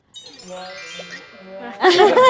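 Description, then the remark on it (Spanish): Glasses clink together in a toast, leaving a clear, bright ring that hangs in the air for over a second before voices and laughter break in loudly. “Bueno, salud por salud. salud.”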